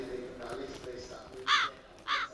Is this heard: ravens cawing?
yes